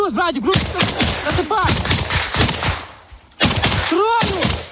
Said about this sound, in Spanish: Escuchábamos ahora mismo el tiroteo que se producía hace unas horas en el frente de Ucrania.